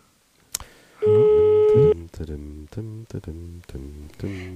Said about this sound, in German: okay, ah, es klingelt.